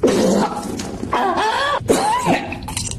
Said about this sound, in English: Oh. She just Damn, coughs up the vomit there. All very li- liquidy.